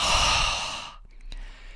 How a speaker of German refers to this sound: dann kann es auch angenehm sein, einfach zwischendurch durch den Mund auszuatmen